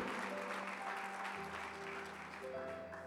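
An audience applauding, a steady, dense wash of clapping that fills the whole clip at an even level, with faint tonal hums underneath and no talking.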